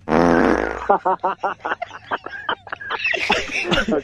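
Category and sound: vocal imitation, voice imitating a fart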